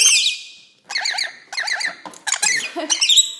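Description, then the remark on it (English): Two pet birds fighting on a person's shoulder squeak and squawk shrilly in several loud, agitated bursts of rapid chirps that overlap like a scuffle, with short pauses between and no voices. “bird wars, man.”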